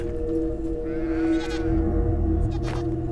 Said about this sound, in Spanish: De pronto José escucha que otra de sus cabras llora en el exterior